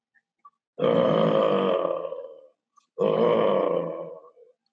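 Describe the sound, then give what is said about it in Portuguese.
A person imitates the growl of a tiger or dog when fighting, with two long, rough, throaty rumbles, each lasting under two seconds with a short pause between, loud and gravelly with the second tapering off. “O tigre, quando está brigando, o cachorro, se você tem, quando está lutando, está brigando, o que, que ele faz? Ele rosna.”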